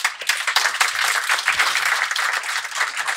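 A steady burst of applause, dense overlapping hand claps forming a bright, crackling wash of noise that holds at an even, fairly loud level for a few seconds without any talking.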